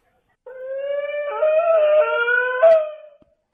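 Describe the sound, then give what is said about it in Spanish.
A homeless man, filmed in a video at the Zócalo of Cuernavaca, Morelos, lets out a long, loud howling scream, a sustained wavering wail lasting about two and a half seconds that rises briefly before trailing off, heard alone without any talking. “Ese alarido que acaban de escuchar, yo lo recuerdo de un video de una persona indigente.”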